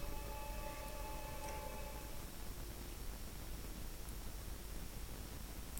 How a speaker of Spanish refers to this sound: Hay algunas teles que están con ruido blanco.